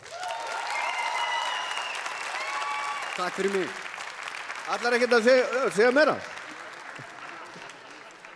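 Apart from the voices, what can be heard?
audience applause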